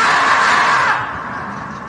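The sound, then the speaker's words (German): A loud, shrill animal scream, a marmot's cry played from a video clip, held for about a second and then trailing off into a fainter, noisy tail. Nobody speaks. “lustig war doch auch ähm, äh, das Murmeltier, Quarantäne siebter Tag, ne? was dann so schreit.”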